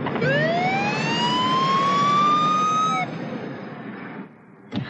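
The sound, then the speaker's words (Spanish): A police patrol car siren wails loudly as the patrol car cuts off a car at a hospital, its tone sliding steadily upward over rumbling engine noise for about three seconds before cutting off, leaving fading traffic noise. “Suben al coche, pero una patrulla les corta el paso.”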